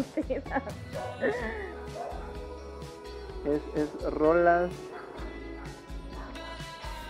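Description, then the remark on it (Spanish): Dogs bark and yelp in short bursts while people keep talking over them, the loudest cluster of barks coming near the middle. “Ahí van a los perros.”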